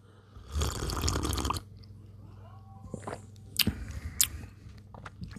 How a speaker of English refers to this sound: Um, so I'm consuming cup number two. I'm going to take another sip.